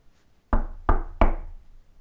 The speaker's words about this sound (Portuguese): Quem está a bater à porta da topeirinha?